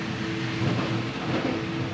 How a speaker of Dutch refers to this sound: een bonken van de trein over de sporen. En dat is best nog wel rustgevend en, en, geschikt om bij in slaap te vallen. Het voelt soms een beetje als in slaap gewiegd worden.